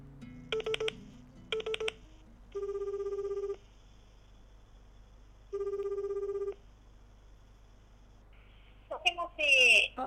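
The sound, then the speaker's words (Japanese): A phone is dialed with two quick bursts of keypad tones to call a guest during a radio show recording, then two long electronic ringback tones sound with a pause between, followed by a brief bright click or chirp as the call connects. “はい、では早速電話をかけてみますかはい、はい、じゃあかけてみます、はい”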